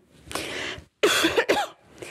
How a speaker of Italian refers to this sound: avevo detto che non avrei tossito, che non avevo bisogno dell'acqua